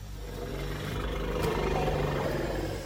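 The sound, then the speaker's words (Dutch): A male elephant's warning rumble, a deep, steady drone with layered low tones that holds for about three seconds, swelling slightly in the middle, with no voices; the warning call rumbles through the ground for miles. “His warning calls rumble through the ground for miles.”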